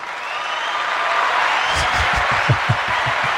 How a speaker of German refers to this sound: Also endlich ja, applaudiert ihr mal einer. Ich nehme das immer alles nur als gegeben hin. Bitte, bitte hört nicht auf zu klatschen.